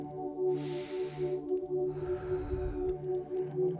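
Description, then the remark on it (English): Two slow, deep breaths during a guided meditation to recharge vital energy, a long airy inhale followed by a fuller exhale, heard over a steady, humming musical drone. “So, we're going to start as usual, finding a comfortable position, having our back straight, and we start breathing.”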